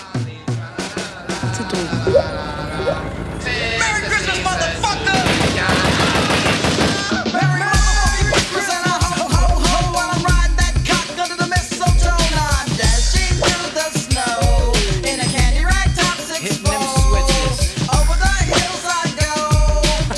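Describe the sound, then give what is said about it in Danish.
A hip-hop Christmas song plays loudly, opening with a dense, crackling burst of sound before a heavy, steady bass beat kicks in under layered melodic lines. “Så det vi gør, det er, at vi har en øh, hiphop julesang med hver gang til jer, og øh, den får I bare her.”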